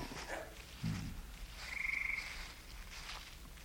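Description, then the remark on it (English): Frogs croak in a marsh, a steady chorus of trilling calls, with one drawn-out buzzing croak standing out over a soft, constant background hum. “It's all frog marshes, old Roman walls, and mosques that have crumbled back into the desert.”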